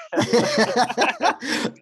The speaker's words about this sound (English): Bless you